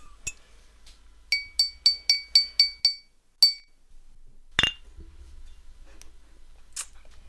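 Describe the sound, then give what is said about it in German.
Glasses and a bottle clink together in a toast, a quick, even run of about seven bright ringing taps, followed by a few scattered clinks and a duller knock, with no talking. “Und deswegen sage ich Cheers! Cheers! Cheers. Ja, eine Flasche macht halt keine Geräusche.”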